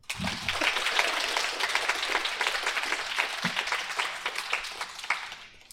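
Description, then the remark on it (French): An audience of about fifty claps to show who has read Les Trois Mousquetaires, steadily for several seconds, a dense crackle of many hands at a fairly even loudness that thins out toward the end. “Euh, et par applaudissement toujours, qui a lu Les Trois Mousquetaires”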